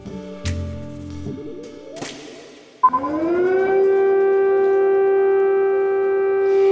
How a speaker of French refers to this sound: Les sirènes qui retentissent à Kiev, capitale de l'Ukraine, la guerre est déclarée, la Russie a déclenché une opération militaire de grande envergure sur tout le territoire ukrainien.